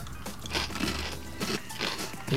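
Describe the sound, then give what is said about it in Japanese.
Someone crunches on spicy togarashi arare (Japanese chili rice crackers), with a few crisp, crackling bites spaced roughly evenly over a couple of seconds, moderately loud with no talking. “じゃあ続いてちょっとあの、まあこちらちょっと辛いやつなんですけど、唐辛子あられということでじゃあこちらを”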